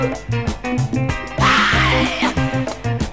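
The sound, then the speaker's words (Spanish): A funk track with a punchy, syncopated bassline and tight rhythmic stabs, loud, with a raw shouted vocal bursting out in the middle before the groove continues. “Esta canción que viene ahora, decime si no te hace acordar al señor”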